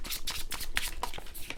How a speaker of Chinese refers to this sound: 先让我抽塔罗牌，我们要接着看塔罗牌了。